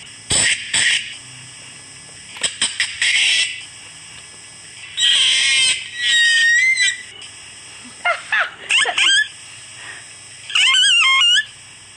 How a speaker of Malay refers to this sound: Ah, seal. Seal. Ah, anjing laut.